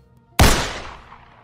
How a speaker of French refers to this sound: pour la deuxième fois de la journée, vous allez entendre un coup de feu.